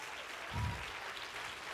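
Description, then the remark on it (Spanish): An audience at a church sermon applauds the Lord steadily, a dense, even crackle of many hands clapping at once, with a short low thump partway through and no voices standing out. “Los agradecidos que le den un fuerte aplauso al Señor.”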